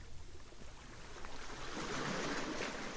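Sea waves at the shore: a soft wash of water that builds and swells into a fuller, hissing rush partway through, steady, with no voices.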